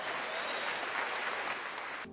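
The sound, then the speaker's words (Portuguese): An audience bursts into steady, dense applause to give glory to God, many hands clapping together in a continuous wash of sound that cuts off abruptly after about two seconds. “Se você quiser aplaudir, se você quiser dar um glória a Deus, faça isso em nome de Jesus.”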